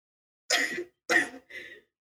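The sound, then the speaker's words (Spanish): A voice imitates three rough, throaty coughs of a character coughing up blood while kneeling on one knee on the floor, the last one shorter and weaker, fairly loud with no other sound around them. “Está con una rodilla en el piso. Está tosiendo sangre”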